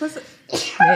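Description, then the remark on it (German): A single abrupt, breathy sneeze bursts out, bracketed by brief voiced sounds from the same person just before and after. “Gesundheit.”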